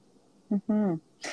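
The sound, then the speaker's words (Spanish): A brief cough-like sound: a short voiced grunt, then a longer rasping throat-clearing rumble, ending in a breathy burst of air. “No, y mucho tiene que ver con cuestiones no me voy a cuidar aquí, pues van a decir que qué la tos.”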